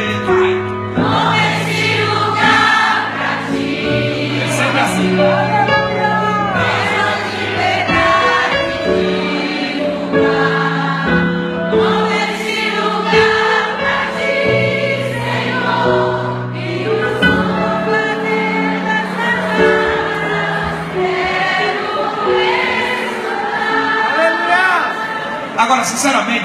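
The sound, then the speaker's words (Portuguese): A large group of women sing together loudly and steadily, their blended voices holding sustained, swelling notes throughout without pause, with no instruments standing out. “volume da, da voz das mulheres não foi 10% do que elas podem.”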